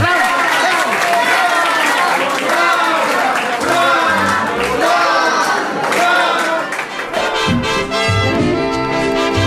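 audience ovation

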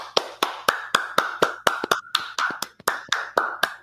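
hand clapping

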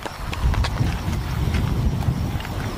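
horse galloping hooves

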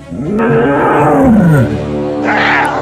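tiger roaring

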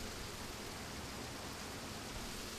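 heavy rain falling outside

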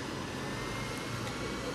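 cars passing by outside

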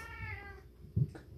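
cat meowing

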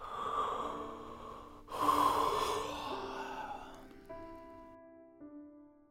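yawning

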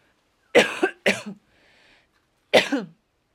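coughing

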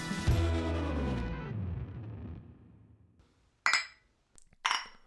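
glasses clinking

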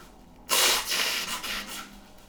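nose blowing

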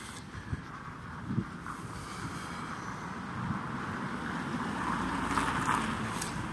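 wind blowing outdoors

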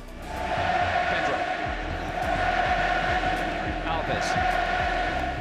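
stadium crowd chanting

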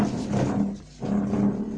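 dog noise

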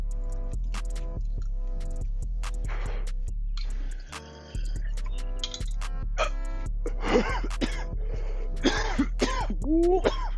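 coughing

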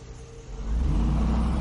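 car driving past

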